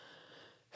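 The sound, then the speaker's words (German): A single abrupt sneeze bursts out at the very end after a stretch of quiet, breathy hiss. It is fairly loud, with no talking. “Gesundheit.”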